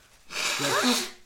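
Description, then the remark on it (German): A single sneeze bursts out with a breathy hiss, carrying a short voiced cry in the middle before trailing off, heard on its own without talk. “Gesundheit übrigens”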